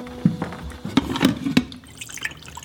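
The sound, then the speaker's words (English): Coffee dripping from a coffee maker in the morning: a handful of irregular, hollow liquid drips and plinks over a soft background, with no talking. “There's some coffee behind me.”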